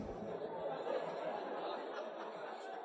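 A crowd of more than a hundred people chattering all at once on cue, each saying anything to a friend beside them, forming a dense, steady wall of overlapping voices with no single speaker standing out, fairly loud throughout.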